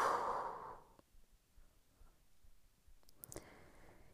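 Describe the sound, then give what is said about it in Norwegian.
During a guided breathing exercise, a slow, deep exhalation after holding the breath sighs out breathily at the start and fades over about a second, followed by quiet stillness and a soft rustle of breath near the end. “Og pust ut.”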